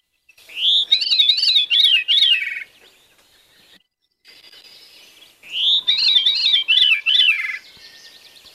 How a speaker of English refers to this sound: Um, I'll actually play both of those because they're both really interesting sounds, I think. So here's the Veery. Veery.